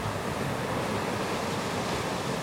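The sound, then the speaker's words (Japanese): A steady, full wash of ocean surf rolls on without pause, a broad hiss of water surging against a shore at a constant moderate loudness, with no voices present. “白い砂浜に寄せる波をイメージしてみてください波が寄せては引いて心地よい音が聞こえます波の音に耳を傾けていると徐々にリラックスが深まっていきますそのまま波の音と自分の呼吸に集中しましょう”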